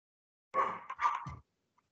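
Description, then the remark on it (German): A dog barks in a quick burst of two or three yelping barks run together, moderately loud, followed by quiet. “Der bellt da einfach mal Hunde. Das war der Hund.”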